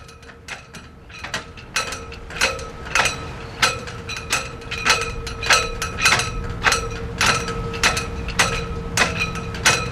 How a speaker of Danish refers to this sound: tomme flagsnore står og slår i blæsten mod aluminiumstængerne uden for retsbygningen i Vindslov.